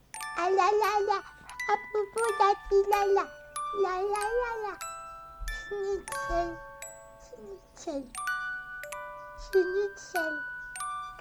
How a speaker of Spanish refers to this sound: Acá ponemos música de bebé en cuna.